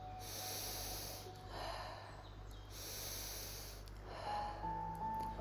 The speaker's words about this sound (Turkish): Nefesimi burnumdan uzun içme çekiyorum. Ağzımdan rahatça ve kendiliğinden bırakıyorum.